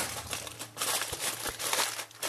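Aluminium foil used in cooking being crinkled and crumpled in a continuous run of sharp, crackly rustling bursts, with brief lulls between handfuls and no voices.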